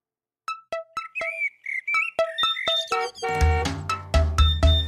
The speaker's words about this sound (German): Da, mein Wecker. Früh am Morgen und blödes Aufstehen. Dodo, dein Wecker klingelt.